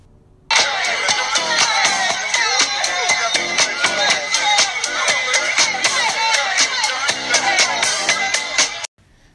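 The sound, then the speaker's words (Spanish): A loud, full-band pop song plays with a steady, driving drum beat and bright layered instruments, starting abruptly and cutting off after about nine seconds. “Y la canción suena así.”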